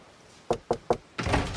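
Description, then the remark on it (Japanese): Three sharp, evenly spaced knocks on the door of Yokoi's office, clear, then a louder sustained rumble as the door opens and Yamauchi stands there. No talking. “ノックの音を聞いて横井は飛び上がったドアが開き彼は持っていた装置をコンクリートの床に落とした”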